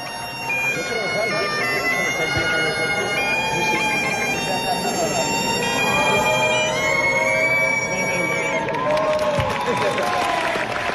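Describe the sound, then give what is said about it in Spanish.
Bagpipes play a sustained, droning melody with bright reedy notes at Pradejón's football ground in La Rioja, Spain, welcoming the fans and team of Atlético Lugones, heard over a continuous crowd murmur with some applause and voices throughout. “Por cierto, el Pradejón, que ayer tuvo un detalle, recibiendo allí en La Rioja a los aficionados y al equipo del Atlético Lugones con el sonido de las gaitas.”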